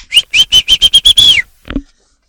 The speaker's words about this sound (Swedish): om vi kunde vissla. Det är du som inte kunde vissla.